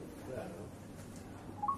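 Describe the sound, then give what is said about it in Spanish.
A phone starts ringing near the end with a quick pair of bright electronic tones, moderately loud, after a stretch of muffled room noise and faint background voices. “Y aparte no me gusta nada esta llamada.”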